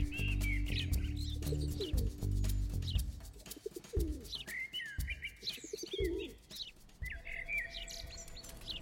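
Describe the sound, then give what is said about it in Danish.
Low, throaty dove coos repeat in the first few seconds, with a steady chorus of small birds, including sparrows and blackbirds, chirping and tweeting throughout, heard through an open window on a summer day. “Altså, jeg har spurgt ham, og han har sagt, at der vil være spurve, formentlig gråsbåge, duer, solsort.”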